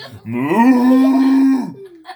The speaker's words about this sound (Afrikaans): Toe kom daar 'n bees.